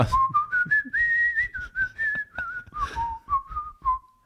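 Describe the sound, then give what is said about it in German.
Someone whistles a short, bright melody, a smooth rising and falling tune of sustained notes lasting a few seconds, imitating the jingle that plays when paying by card, with no talking over it. “Da kommt immer so eine Melodie, wenn man zahlt.”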